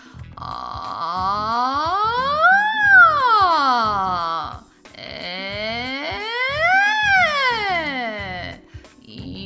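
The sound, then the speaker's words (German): A voice imitates a siren twice as a vocal range exercise, each time sliding smoothly from a low, buzzy tone up to a high squeal and back down, loud, with a brief break between the two sweeps. “eine Sirene. Versuche alle Töne mit einzuschließen, von ganz tiefen, brummeligen Sounds bis zu der Quietschtönen, so wie bei mir jetzt.”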